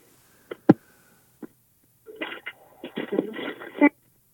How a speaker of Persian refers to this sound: قطع شد الو قطع شد